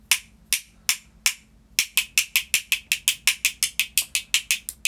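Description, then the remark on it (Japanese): A run of sharp, bright clicks from handling an instant coffee jar's lid: four spaced taps, then a quicker, steady ticking like a ratchet, crisp and fairly loud with no talking. “これが蓋の音。”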